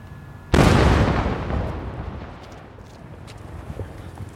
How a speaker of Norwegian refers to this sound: Det var lyden av utgående israelsk artilleri. Tror og håper jeg. Ja, nå stiger det røyk opp bak her. Da vi kjørte inn, så så vi alle stridsvognene på rekke og rad med kanonene pekt i retning Gaza. Så det er nok dit det skuddet gikk.